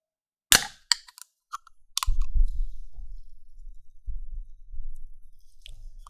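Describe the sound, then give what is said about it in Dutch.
A sharp crack of the tab popping open on a 250 ml can of Simply Cola, followed by a few small clicks and a low, rumbling fizz that swells and fades in uneven bursts. “Blikje is uh, 250 milliliter, drink blikje. En ik ga hem gewoon eens openen.”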